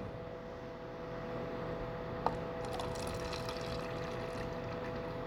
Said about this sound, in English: when he was with the disciples, took a cup and he poured it out